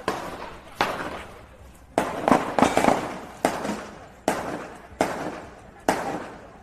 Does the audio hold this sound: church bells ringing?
no